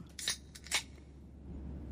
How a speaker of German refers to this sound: Warte mal, mal. Dose aufmachen. Komm hier. Prost.